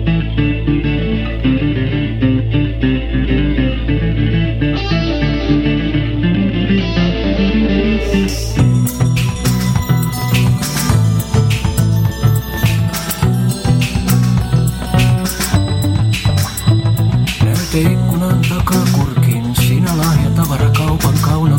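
A recorded song plays loudly and continuously, a dense band arrangement that shifts abruptly about eight seconds in to a brighter, fuller section with strong rhythmic hits. No one speaks over it.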